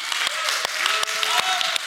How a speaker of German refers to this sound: Lass uns mal allen einen fetten Applaus geben heute Morgen. Come on.